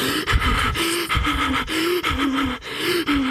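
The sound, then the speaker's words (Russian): Heavy, rapid panting, a steady run of loud gasping breaths in and out from someone out of breath on a train after running hard, with no talking. “Что ты в поезде э, запыхаться начинаешь?”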